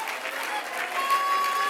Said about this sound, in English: Give Jesus a hand clap, a standing ovation of great praise.